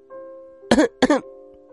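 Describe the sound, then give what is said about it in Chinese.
Two quick, harsh coughs from a meerkat mother in close succession, loud and raspy with a voiced edge, as she sits up, set against a faint steady humming tone and no talking. “狐獴妈妈咳嗽了一声，坐起来了。”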